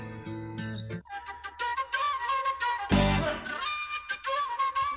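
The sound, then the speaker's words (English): A breathy pan flute solo plays over a backing track on a record, with a loud, airy rush of the player's breath around the middle, then the airy melodic line carries on. “has the best pan flute solo on the record, uh, and you can hear. I right, play that because this you can literally hear his rock breath.”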